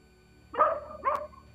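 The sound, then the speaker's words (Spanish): Two quick dog barks, one after the other, clear against a quiet background with a faint low hum. “Hasta los perros nos llaman aquí porque está la perrera.”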